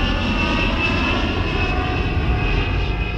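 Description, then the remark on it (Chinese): A Northwest Airlines plane's engine roars steadily during takeoff from Portland airport, USA, bound for Seattle, on November 24, 1971: a loud, dense rumble with a sustained high whine layered on top and no voices. “而当飞机起飞了之后”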